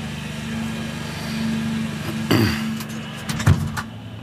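A lawn mower drones steadily with a low, buzzing engine hum, broken by a couple of brief clanks or knocks partway through, as a gardener mows the lawn in a backyard. No one speaks.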